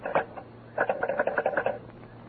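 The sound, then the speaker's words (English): A telephone receiver is lifted with a short clunk to take a long-distance call from New York, then after a pause comes a quick run of rhythmic clicks as a number is dialed, moderately loud with no voices. “Well, I'll take it on this phone here.”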